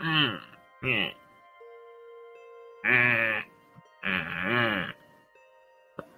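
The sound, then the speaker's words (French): A voice imitates a woman whimpering as she slowly regains consciousness: four quavering, whiny bursts, fairly loud, with short pauses between them and a longer gap in the middle. “Elle commence petit à petit à, à couiner. comme si elle reprend un peu, un peu conscience”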